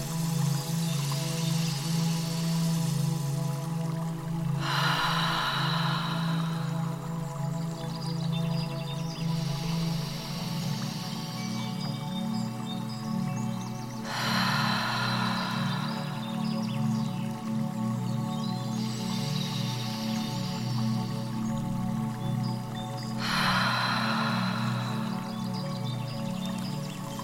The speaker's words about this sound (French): Encore une fois, prends une grande inspiration par le nez. Bloque ta respiration et expire profondément par la bouche.